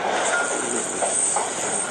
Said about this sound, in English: Then we got back on the train.